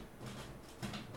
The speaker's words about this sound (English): Oh, he's got magnetiles out there. I think oh. he's just tearing them apart.